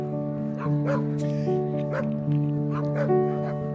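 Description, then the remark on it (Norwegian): A husky gives short yips and whining whimpers in quick bursts over a steady tonal hum, fairly loud for a few seconds. “Husky er en trekkhund.”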